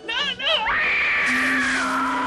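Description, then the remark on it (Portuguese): A loud scream of indignation that begins with a few wavering, warbling cries, then rises into a long, sustained high-pitched wail lasting about two seconds. “aproveita para soltar um grito de indignação.”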